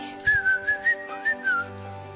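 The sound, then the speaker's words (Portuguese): A person whistles a quick run of about six short, bright notes that hop up and down in pitch, light and playful like falling water droplets, clear and close with no talking. “Felizes caíam e assobiavam.”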